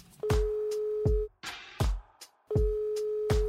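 A steady, mid-pitched telephone ringback tone on an outgoing phone call that goes straight to an answering machine sounds twice in one-second bursts separated by a pause, with sharp clicks and brief bursts of hiss around it and no voices.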